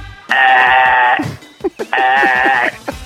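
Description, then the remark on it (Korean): A vocal impression of a coffee machine grinding coffee beans, from a radio impression quiz: two loud, sustained whining bursts of about a second each, with a nasal, almost bleating tone and short clattering noises between them. “아, 정답은 아, 커피 머신 소리였습니다. 커피 가는 소리 있잖아요.”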